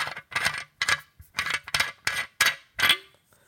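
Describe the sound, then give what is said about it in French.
A flat, reusable metal water bottle being uncapped, with a series of about seven sharp, ringing metallic clinks in quick, uneven succession, fairly loud, with no talking. “Écoute bien le bruit que fait ce truc quand tu le débouches.”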